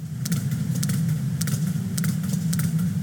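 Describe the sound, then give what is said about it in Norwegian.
Sharp echolocation clicks from a sperm whale, a toothed whale, used to orient itself, about eight of them, tick out at a steady, slightly uneven pace over a constant low underwater rumble, with no voices. “Dette er en spermhval, og det er en tannhval. Og de bruker mm, ekkolokasjon.”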